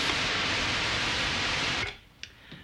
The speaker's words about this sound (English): The last of which uh, is probably the least useful, although you'd never want to be without it. It's very colorful, very coloristic. In its pure form, it sounds like surf or a steam sound. It's called white noise.